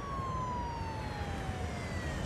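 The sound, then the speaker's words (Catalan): A police car siren wails steadily in the street, its tone slowly sliding downward over a constant rumble of traffic noise, fairly loud. “Sento un cotxe de policia al carrer.”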